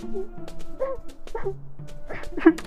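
A dog whimpering from a house, a series of short, high-pitched whining cries with brief pauses between them, the last one rising a little louder.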